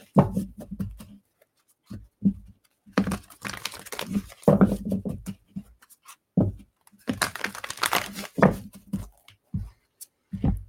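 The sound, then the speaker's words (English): A Mystical Shaman Oracle card deck (by Colette Baron Reid, Alberto Villoldo and Marcela Lobos) is shuffled before a meditation, two longer papery riffling bursts separated by scattered soft taps and rustles as the deck is handled, with no one speaking. “So I'm shuffling that deck before we go into our meditation.”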